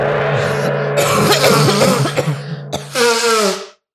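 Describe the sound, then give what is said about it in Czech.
A series of harsh, raspy coughs mixed with throat clearing, loud, ending in one long rough hacking cough before silence. No speech. “Já jsem myslela, že ty budeš uh, smrkat a já kašlat.”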